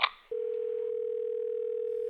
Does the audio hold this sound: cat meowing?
no